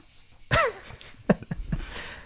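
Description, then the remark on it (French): A steady, shrill buzzing of cicadas drones throughout, joined by a quick descending chirp near the start and a few short clicks and knocks. “Non, on adore le chant des cigales, nous, aux cigales.”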